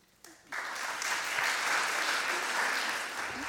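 An audience breaks into applause, quiet at first and then quickly swelling into steady, dense clapping that holds at a constant level for a few seconds.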